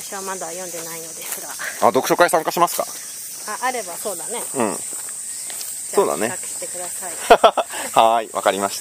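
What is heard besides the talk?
cicadas buzzing outdoors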